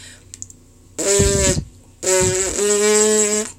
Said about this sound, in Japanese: ちょっと指1本ぐらい内側に入れたとこに2本あの V サインみたいな感じで挟んでもらって唇を震わすと管楽器やってた方はできると思うんですけどブーンブーンってこういう音がするんですよ。あの唇をよくプルって震わせるのを指でピーンとこう張った状態にすることでこう指がなくてもできるんですけど